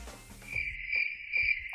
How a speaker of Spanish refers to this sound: Grillos. Sonaron los grillos allí.